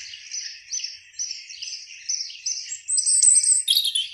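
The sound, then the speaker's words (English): Bright, high-pitched birdsong with rapid chirps and tweets repeating in quick, rhythmic phrases, growing busier and slightly louder toward the end, heard alone without any talking. “Birdsong: A Remarkable Podcast... Coming Soon”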